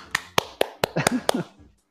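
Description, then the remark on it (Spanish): A handful of sharp hand claps, about six, applauding a colleague for the statistics he provides, land in a quick, fairly even rhythm, with a brief bit of voice or laughter mixed in beneath the last few before it stops. “Aplausos.”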